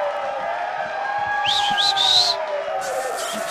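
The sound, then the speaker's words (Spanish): A canned applause sound effect: a crowd claps and cheers with a few rising whistles, swelling midway through over a steady murmur of voices in the background. “Sí, no manches, pon los aplausos.”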